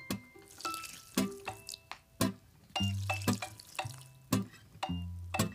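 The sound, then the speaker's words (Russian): Water pours and drips while a houseplant is watered, in a series of bright splashes, each with a short ringing, bubbly tone, coming at an uneven rhythm with no talking. “Я вот как раз сейчас полью свой.”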